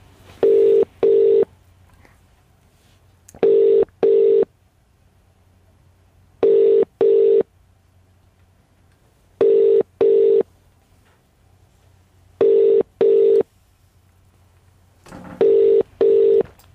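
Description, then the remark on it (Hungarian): A telephone ringback tone repeats on its own, sounding clear, steady double beeps about every three seconds, six pairs in all, with only faint background hiss between them. “Úgyhogy nagyon-nagyon várjuk őt, hogy, hogy el tudjuk érni, és folyamatosan próbáljuk.”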